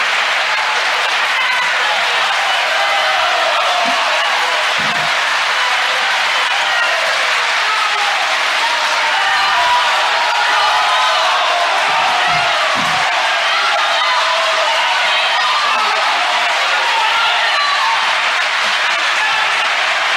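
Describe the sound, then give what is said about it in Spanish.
A courtroom crowd at a trial in Argentina bursts into loud, continuous applause after a closing argument ending "Señores jueces, nunca más", holding steady for the full twenty seconds, a dense roar of clapping mixed with scattered cheers and indistinct voices. “Porque hay un silencio, dos segundos, y explota, y después, bueno, los jueces que se desalojen la sala, ¿no?”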